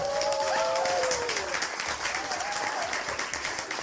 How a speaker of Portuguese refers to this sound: Então vamos lá, palmas para ela também.